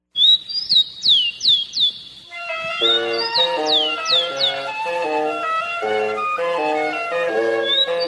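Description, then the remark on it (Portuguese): A rufous-collared sparrow (tico-tico), a Brazilian songbird, sings clear, bright whistled notes with quick downward slurs, alone at first, then keeps calling over an instrumental melody that enters and continues to the end. “tendo ao fundo o próprio Tico-Tico cantando. É uma ave brasileira”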